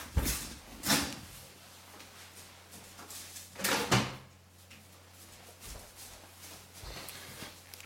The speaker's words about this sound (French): Je suis de retour après moins de 20 secondes et j'ai ouvert la fenêtre et maintenant je vais me geler les pieds.